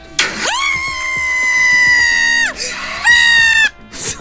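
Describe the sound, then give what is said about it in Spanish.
A loud, piercing horror-movie scream, as in a cinema, holds for about two seconds, breaks off, then returns in a shorter second burst, intense, with faint thumps underneath. “Mira, voy a poner como grito en el cine, la película de miedo, ¿ok?”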